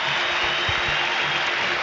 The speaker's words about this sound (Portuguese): Aí os jogadores do Grêmio aplaudem o seu torcedor, o torcedor retribui